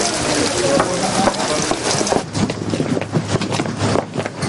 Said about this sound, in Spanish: Fuera está lloviendo.